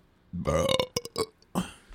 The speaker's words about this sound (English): burps are awesome. Right. That one's for free.